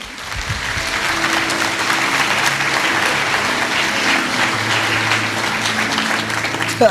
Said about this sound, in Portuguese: Você pode aplaudir, fazer alguma coisa?